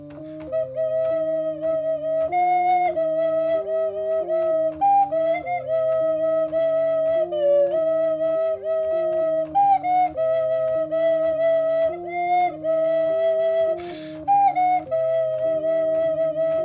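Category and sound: sound effect, piano playing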